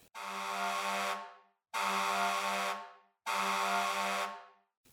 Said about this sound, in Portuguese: Hoje ouviremos a sirene. Ontem meu pai me contou que sirene é um instrumento, mas quase não se usa para fazer música. Como seu som é muito alto, só é usado para avisar que algo está acontecendo. Por exemplo, tem sirene do carro de bombeiros